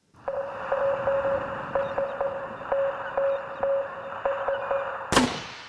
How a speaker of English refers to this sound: You're not fooling me. That sounds like Morse code. Whoa, wait, that Charlie. like a call for help, an SOS. Not sonar, Morse code.